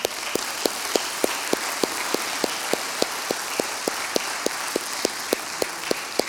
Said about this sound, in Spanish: Si son bisabuelas, pónganse de pie. ¿Bisabuelas? ¿Habrá alguna? Si hay, muy bien, un aplauso.